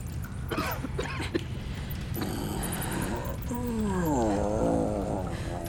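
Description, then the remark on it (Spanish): A few rough, harsh coughs burst out, followed by a strained, raspy throaty groan that wavers in pitch over a constant background hum. “Esa tos de … no suena nada bien.”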